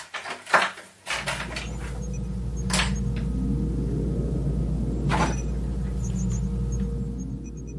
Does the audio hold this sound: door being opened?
yes